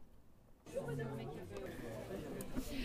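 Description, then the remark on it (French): Soft, steady murmur of many voices fills a cafeteria after a brief quiet start, an indistinct blend of overlapping background conversation. “vous allez entendre cette petite ambiance douce de la cafétéria en arrière-son, en arrière-plan.”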